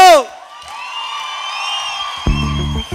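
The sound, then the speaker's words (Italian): A loud whoop rings out, then a large concert crowd in Udine keeps cheering and hollering in a sustained roar, with a buzzy shout cutting in near the end. “Oh, ci siete una udine, non vi sento!”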